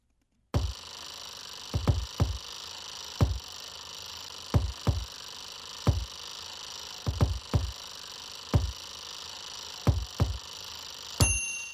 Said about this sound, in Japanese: オーブントースターの音を入れていきましょうか。